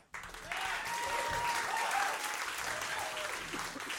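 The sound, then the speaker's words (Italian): An audience at a show being filmed for a live DVD claps steadily for about four seconds, a dense, sustained burst of applause that starts abruptly and stays loud throughout, with a few faint cheers mixed in. “So if you can see all these cameras around here, yes, feel free to applaud.”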